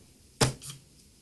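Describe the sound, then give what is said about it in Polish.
A sharp mechanical tap on a braille device, followed a moment later by a short, softer vibration buzz as the device quickly recalibrates, which quickly fades. No one speaks. “Jeszcze raz to zrobię, tak żeby było wyraźnie słychać, tak mocniej yy, przytnę, żeby było słychać to puknięcie i jak to się szybko skalibruje.”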